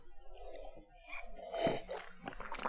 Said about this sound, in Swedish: Så säger jag cheers och tar en sista klunk här.